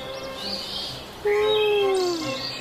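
Birds chirping as they fly in the sky over the Alps in spring: thin, high twittering calls at first, then a louder run of overlapping whistled notes that slide gently downward, all over a soft, steady background hiss.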